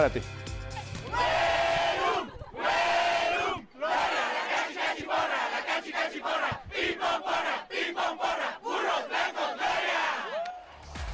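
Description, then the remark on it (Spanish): A stadium crowd of Politécnico fans chants the Huelum cheer at the Wilfrido Massieu stadium during the Águilas Blancas vs Burros Blancos game, in loud, rhythmic shouted bursts, voices roaring together in short punchy syllables with brief breaks between phrases. “Con el Huelum retumbando en el Wilfrido Maciú, así es como se volvió a vivir y sentir la fiesta politécnica con la guerra civil entre Águilas Blancas y Burros Blancos”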